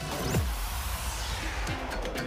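Soundtrack music from the video game Dino Chronicles 3 plays steadily, a dense, continuous mix with a few sliding tones sweeping through it. No one speaks.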